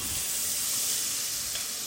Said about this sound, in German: Das Ganze blubbert und spritzt natürlich jetzt äh, entsprechend in dem heißen Öl, weil es viel Wasser enthält.